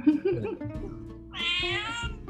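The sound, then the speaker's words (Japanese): A cat named Nekobayashi meows, one drawn-out, bright meow in the second half, preceded by a few lower, shorter vocal sounds. “猫林さん、今日もテンションね、バッチリですね。”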